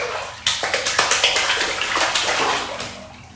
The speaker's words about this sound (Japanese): 今日はですね、まあ、変なこうちょっとハウリングみたいなね、えー、ちょっとエコーみたいなねなんかそういう音声のですねエフェクトがかかってるんじゃないかというふうに耳のいい人はお気づきかもしれませんがお風呂ですはい